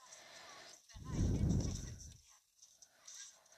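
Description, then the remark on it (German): A single loud horse neigh or snort bursts out about a second in, lasting around a second before fading, with quiet background noise and no speech. “Oha, das Pferd sieht OP aus.”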